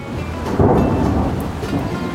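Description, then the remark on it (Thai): Steady rain pours down during the rainy season while a deep, loud rumble of thunder swells and rolls through, filling the whole stretch with dense low noise and no voices. “และเมื่อฤดูฝนมาถึงนะคะ”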